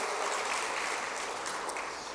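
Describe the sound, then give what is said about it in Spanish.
An audience applauds the Lord together, a dense, steady wash of many hands clapping at once, sustained evenly for a couple of seconds with no voices standing out. “Denle un aplauso al Señor y ocupe su lugar.”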